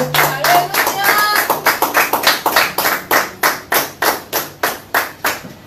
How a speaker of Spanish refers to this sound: ¿Qué te parece si le damos un aplauso al Señor? Vamos, dale un aplauso fuerte.